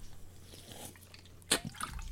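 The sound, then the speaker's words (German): Cherry Coke being drunk from a bottle: a sharp click followed by a few soft, wet gulping and sloshing sounds over quiet background hiss, with no talking. “ich packe mir gerade eine Cola aus”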